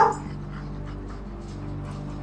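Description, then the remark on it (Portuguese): A guide dog, Bonaparte, lets out a short whimper right at the start, then the sound settles into a steady, low tonal hum with no clear barking. “Isso aqui é tudo que eu tenho minha bengala, meus óculos escuros e um cão-guia.”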